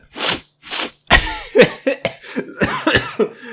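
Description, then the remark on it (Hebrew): Two sharp, breathy coughs, followed by a rapid run of harsh, hacking coughs with throaty rasps, loud, with no talking, from a person coughing at the spiciness of the food they are eating. “זה מרוב החריפות שיש לי במזון, שתכף יהיה לי גם נזלת”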